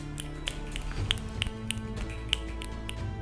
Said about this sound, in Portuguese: Ao som do nosso estalar de dedos, ouvimos o rugido do dragão mas dessa vez nenhuma bola de fogo pareceu nos envolver.